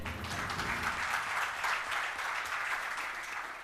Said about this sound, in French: D'abord, Vital Kamere, le vice-premier ministre en charge de l'économie de la RDC, qui nous fait le plaisir d'être là et qui a effectué le voyage. Et je vous demande de l'applaudir, s'il vous plaît.